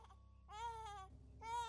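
A baby cries in two short wailing bursts separated by a brief pause, the strained, high-pitched sobs fairly loud with no one speaking.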